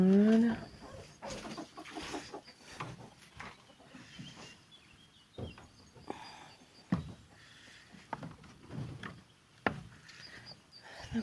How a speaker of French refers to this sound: deuxième coq vient de descendre.